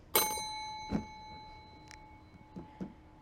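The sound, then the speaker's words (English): A single bright bell ding strikes near the start and rings out with a long, steady tone that fades slowly, while a few soft knocks and clicks sound in the background. “that a better bell than the death bell?”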